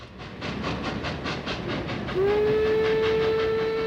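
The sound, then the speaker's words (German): A steam locomotive chuffs in a steady, rhythmic beat, then a loud, sustained steam whistle cuts in and holds through the end, with no voices. “Dampfloks. Schön anzuschauen im Museum, aber auf freier Fahrt waren sie rechte Luftverschmutzer.”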